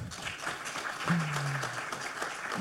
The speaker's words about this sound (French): Merci, on l'applaudit très fort.